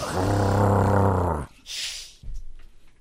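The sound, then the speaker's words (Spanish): A person imitates a dog that has a cat cornered, with a low, rumbling, sustained snarl for about a second and a half, then follows it with a breathy hiss and quieter rustling. “Así los tienen a ustedes, imagínense un gato en la esquina así. Y el perro así.”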